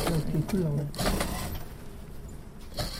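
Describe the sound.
A sewing machine whirs steadily in a fashion designer's workroom in Sinsa-dong, Gangnam-gu, Seoul, its mechanical rattle running continuously for a few seconds while indistinct voices murmur.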